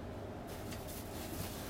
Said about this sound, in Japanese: めっちゃめっちゃ換気扇の音入ってると思うし作業音もね今からいろいろ入ってくるかとは思うんですけれども